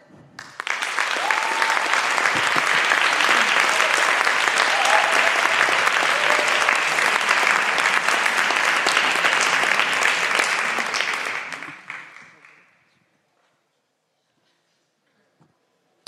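Sustained audience applause, a dense, steady wash of clapping that starts quickly, holds evenly for about eleven seconds, then tapers off and fades into silence.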